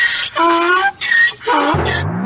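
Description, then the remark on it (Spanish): Donkeys bray loudly, a series of harsh wheezing calls that rise and fall, ending in a deep, rasping honk. “pues yo no tengo caballo, tengo unos burros.”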